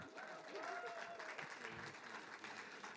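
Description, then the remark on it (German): An audience claps steadily for ten helpers lined up in a row, a dense, continuous patter of many hands, fairly loud throughout, with faint voices mixed in beneath the applause. “Ein Applaus an meine Adjutanten.”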